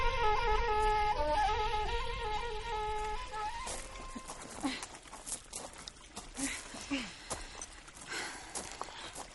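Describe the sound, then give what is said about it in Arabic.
The hooves of a horse with a rider coming on it clip-clop in an uneven run of sharp knocks through the second half, after an opening stretch of sustained tonal sound with voices. “هاي جي راكب على حصان”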